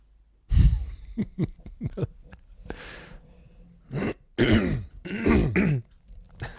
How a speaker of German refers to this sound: Wir müssten auf jeden Fall viele Räusper rausziehen.